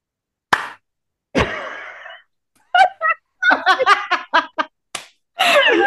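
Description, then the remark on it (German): Two sharp hand claps, a loud single smack and then a second clap blending into a brief vocal sound, followed by bursts of giggling laughter. “Jetzt muss ich auch lachen, wenn ich überlege, ich klatsche gleich.”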